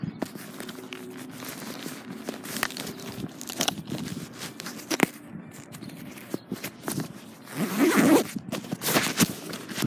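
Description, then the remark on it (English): A bag zipper rasps open and shut in several quick pulls, mixed with rustling and handling noises as items are packed, with a louder burst of scraping near the end. “I'm trying to put stuff in my bag.”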